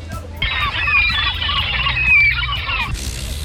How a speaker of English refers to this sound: That's a seagull. A seagull.